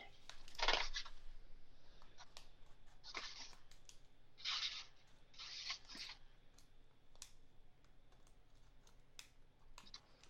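Several short bursts of crinkly rustling as the plastic bag from Lomo 800 film is used to clean between the keys of a Mac laptop keyboard, coming in uneven strokes with clicky taps between them, fairly quiet, with no talking.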